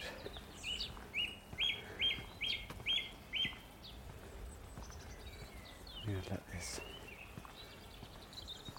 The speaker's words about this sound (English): And the Dunnock.